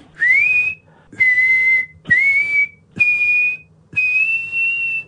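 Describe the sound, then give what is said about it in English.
A soldier on a platform whistles a slow melody in five clear, sustained notes, each rising slightly before holding steady, with short pauses between. The whistling is fairly loud, with no talking. “The ghost soldier on the platform yeah, whistling "…."”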